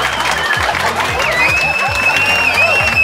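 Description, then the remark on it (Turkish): A crowd applauds and cheers steadily for a few seconds, with dense clapping, scattered shouts and a high whistle running through the noise. “Ve sakın alkışlamayın bunun bir marifet olmadığını biliyorum.”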